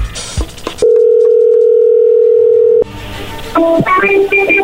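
A phone call being dialed: a short burst of keypad tones, then a steady, loud tone held for about two seconds, followed by more quick dialing beeps and clicks.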